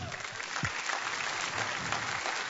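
An audience claps steadily, a dense, continuous wash of applause filling the space at moderate loudness with no one speaking over it.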